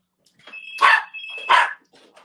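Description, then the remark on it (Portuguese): A dog barks twice in quick succession, loud, while a steady high electronic ring or buzz tone sounds alongside, like a doorbell or intercom, as a pizza delivery arrives. “Meu cachorro fica louco.”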